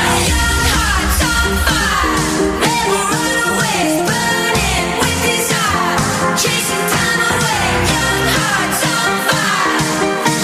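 An upbeat electronic dance track plays loud and steady, with a driving regular beat beneath bright layered synth melodies and full bass. No one speaks over it.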